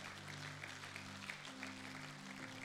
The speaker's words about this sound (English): Can we give those few wonderful people a big hand clap?